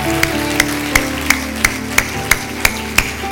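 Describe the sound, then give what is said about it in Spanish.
An audience at a Christian service claps in unison as an applause to the Lord, about nine sharp, evenly spaced claps in a steady rhythm over a sustained, humming musical backdrop, with no talking. “Un aplauso al Señor.”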